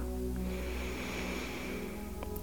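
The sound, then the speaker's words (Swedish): A slow, steady ujjayi inhale during a relaxation breathing exercise, a soft throaty hiss like surf that carries evenly through the whole moment, quiet with no talking. “Andas in.”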